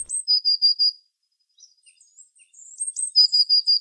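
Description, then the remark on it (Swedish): A blue tit sings alone: high, thin trilled phrases of rapid repeated notes, a short pause with faint scattered calls, then another bright trill, clear. “Vi pratade ju i början om hur den ser ut, blåmesen, mm.”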